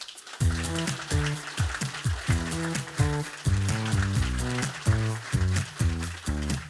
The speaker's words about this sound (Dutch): Geef een groot applaus.